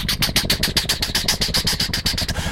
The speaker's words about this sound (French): Maintenant, c'est un hélicoptère qui arrive.